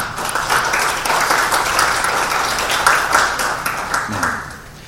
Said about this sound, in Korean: 여러분 박수 부탁드립니다.